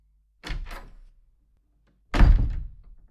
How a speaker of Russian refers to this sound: Дверь распахнулась, и некоторая часть ординаторской мгновенно поглотилась массивной и шумной фигурой вошедшего.